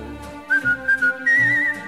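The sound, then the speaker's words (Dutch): A bright whistled tune rises over a soft instrumental backing, with several short notes in a row followed by one longer, wavering held note. “Afluit je het zo,”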